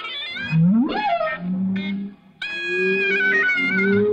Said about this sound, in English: The thing about humpback whales is, uh, unlike most animals, they change their songs from year to year.